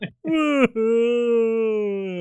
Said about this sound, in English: This is this here is the sound of a Bigfoot with very blue balls.